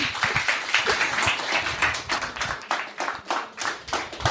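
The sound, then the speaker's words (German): A small group claps together for several seconds, a dense patter of hand claps that swells and ebbs without any talking over it. “Ich finde, dieser Mut ist schon mal ein Applaus wert.”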